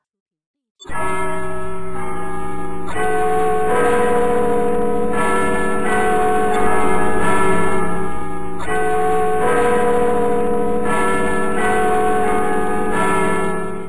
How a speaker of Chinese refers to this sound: 环岛的钟声敲响了。